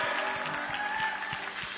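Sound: audience applauding loudly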